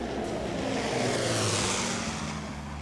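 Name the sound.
airplane flying overhead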